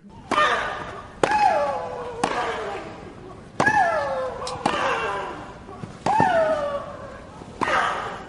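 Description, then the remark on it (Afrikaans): A tennis rally as Serena Williams plays Victoria Azarenka, with sharp racket strikes, each paired with a loud, drawn-out grunt that slides down in pitch. About seven hits come in an uneven rhythm. “Venus se klein sussie Serena sorg ook nie vir 'n stil sessie op die baan nie.”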